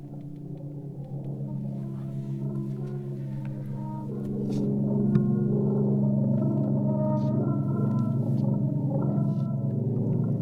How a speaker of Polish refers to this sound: dźwięk, który w tej komorze się wydobywa, to nic innego jak e, głos Wisły. Artysta skonstruował niesamowity instrument, e, tubę i stalowe struny, które wpuszczał na różnych odcinkach warszawskiej Wisły, wpuszczał w jej nurt w jej, w jej bieg